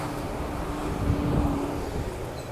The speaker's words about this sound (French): Attention camion. Attention camion.